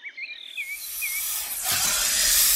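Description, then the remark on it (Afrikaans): A snake with its tail stuck in a bush gives a sharp, airy hiss that swells steadily louder over a couple of seconds, with a few faint chirping calls at the start and no voices. “Toe hoor die jagter 'n gesis.”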